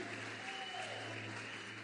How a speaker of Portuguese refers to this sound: Quantos podem aplaudir ao Senhor Jesus? Aleluia!